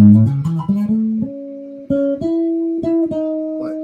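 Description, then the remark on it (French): A series of plucked guitar notes, including notes on the G string, stepping upward in pitch, some short and quick, then longer sustained tones ringing out one after another, fairly loud with no talking. “Là, ça devient déjà beaucoup plus petit, la corde de sol.”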